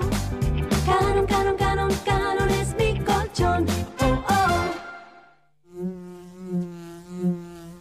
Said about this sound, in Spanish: No se asuste, que no pica. Es la abeja de Andes origen miel.